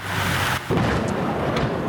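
rolling thunder

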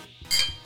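beer glasses clinking

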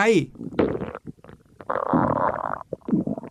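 stomach growling

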